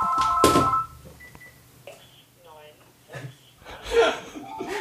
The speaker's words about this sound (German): Mein Telefon hat geklingelt und das Telefon liest gleichzeitig auch die Telefonnummer vor.